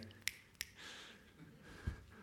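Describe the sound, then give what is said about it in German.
Two sharp finger snaps in quick succession, bright and crisp, followed by a soft low thump over a faint, murky background with no clear speech. “Die Lehrer würde jetzt sagen, der, der schnippt, den nimmt man sicher nicht dran.”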